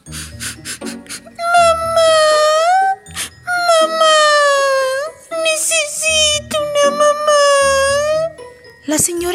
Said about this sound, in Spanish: Choco se sintió tan triste que empezó a llorar.